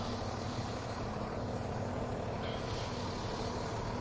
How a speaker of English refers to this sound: This is more the sort of goods entrancey bit, but it brings me out in front of my building. So you have to forgive me if it gets noisy with lorries and delivery vehicles.